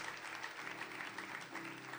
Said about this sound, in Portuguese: Você consegue aplaudir o Senhor? Porque Ele é o nosso Salvador.